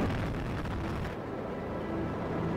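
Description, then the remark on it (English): The space shuttle Discovery's booster ignition and liftoff roar, a dense, continuous rumbling blast that fills the whole clip, its crackling upper hiss easing slightly partway through while the deep roar holds steady. “And we have main engine start. Two, one. Booster ignition and liftoff of Discovery.”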